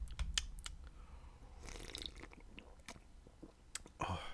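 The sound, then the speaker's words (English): Someone sips a tropical-hopped beer from a can, with quiet slurping sips, swallows and small wet mouth clicks spread over a few seconds, and no talking. “There you go, downing half a can again.”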